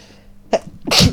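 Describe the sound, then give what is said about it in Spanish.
A single loud sneeze: a quick sharp intake of breath followed by an explosive, breathy burst, with no talking around it. “Salud.”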